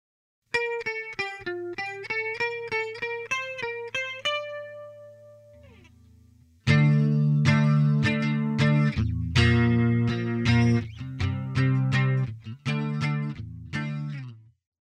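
Electric guitar played through an Electro-Harmonix Small Clone analog chorus pedal, starting with a clean arpeggiated picked melody, then a louder section of thick, shimmering strummed chords with a wavering, doubled tone, no talking.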